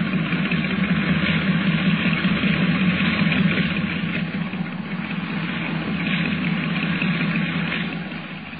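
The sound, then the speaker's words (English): A boat engine chugs roughly and steadily for several seconds, a loud, uneven low rumble with a gritty vibrating texture, and no voices over it. “Under the sound of it, that engine needs attention.”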